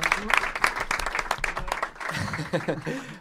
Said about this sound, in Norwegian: ja, applaus.